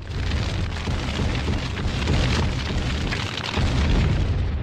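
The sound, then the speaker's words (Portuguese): A huge MOAB bomb explosion, a loud, sustained roaring blast with deep rumbling that fills the whole few seconds without fading, heard alone with no one speaking. “Solta Moab, fogo no motor aí, Moab, Moab.”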